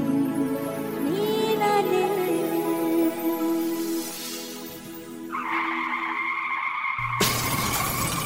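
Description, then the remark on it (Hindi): Car tires screech in a long, loud skid with a wavering pitch, then a sudden smash of impact and a burst of shattering glass that rings out loud at the end. “We hope this never happens to you. If it does, Trust your car to the pros at Auto Techies”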